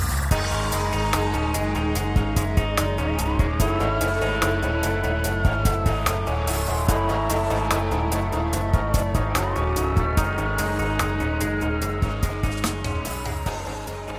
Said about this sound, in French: Et on court pendant vraiment très longtemps, j'ai l'impression, au moins une dizaine de minutes avec les voitures des gendarmes euh, qui nous poursuivent hein, avec des pimpons, pimpons et tout.